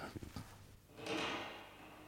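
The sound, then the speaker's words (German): A couple of quick wooden knocks and clatters, then a long, broad whoosh-like swell as a kitchen door swings open or shut, fading gradually; no one speaks. “Die Küchentür.”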